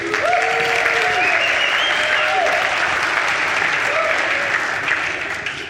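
Steady audience applause for a person coming up to speak, a dense wash of clapping at constant loudness, with faint tonal voices or cheers rising above it before it begins to fade near the end.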